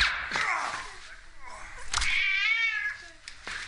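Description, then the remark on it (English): A cat in a film scene meows and yowls loudly, with drawn-out, wavering cries rising and falling over a few seconds, a sharp click or two breaking in between calls. “There's the cat gun.”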